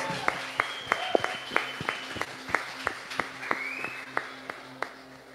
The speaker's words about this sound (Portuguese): Para quem não é do conhecimento ainda, vamos dar uma salva de palmas.